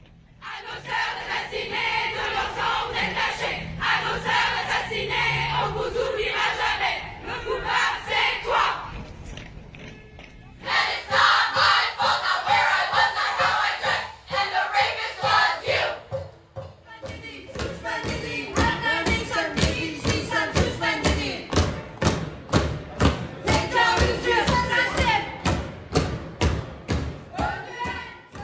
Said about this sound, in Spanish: En Valparaíso, Chile, el … creó la letra y los movimientos de una canción de protesta que se expandió por todo el mundo.